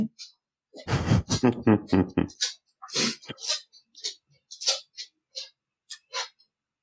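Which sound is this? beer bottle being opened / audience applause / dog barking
dog barking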